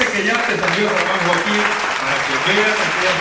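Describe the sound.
A crowd breaks into steady, loud applause for an honoree, dense clapping that holds for about three seconds with a few voices and cheers mixed into the noise.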